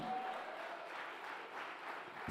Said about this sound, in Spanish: Vamos, denle un aplauso.